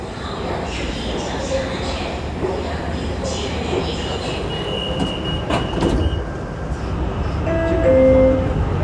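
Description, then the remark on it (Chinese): A Qingdao Metro subway train in China rumbles steadily along with a dense low roar, brief metallic clicks, and a few thin squealing tones near the end as the noise swells slightly; faint voices mingle beneath, with an announcement that Yancheng station has been reached. “青岛地铁畅达幸福，上车请 时请注意脚下安全。”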